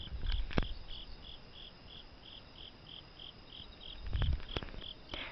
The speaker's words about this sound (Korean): 가을 풀벌레 소리 혹시 들리시나요?